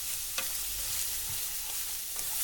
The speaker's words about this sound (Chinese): 现在要开始炒，锅中放入少许油，放入辣椒末爆香。